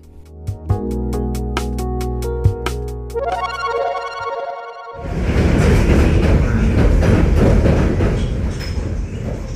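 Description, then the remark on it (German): Onboard Chicago's silver elevated metro train, riding from the Oak Park district: a steady electric motor whine with periodic clicks and clacks, giving way to a loud, continuous rumbling roar of the car running along the tracks. “Statt der gewohnten Wiener U-Bahn befinden wir uns gerade in der bekannten silbernen Hochbahn von Chicago.”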